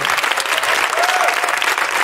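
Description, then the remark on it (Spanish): Loud, sustained applause from an audience for the band before a song, a dense steady patter of many hands clapping at once, with no clear individual claps standing out. “Fortísimo aplauso para ellos, por favor.”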